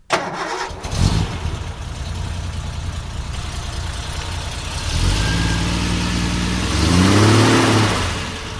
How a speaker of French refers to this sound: On va la démarrer, tiens, la TR250 avec son moteur 6 cylindres en ligne.